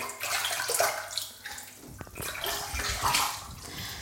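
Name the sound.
bath water splashing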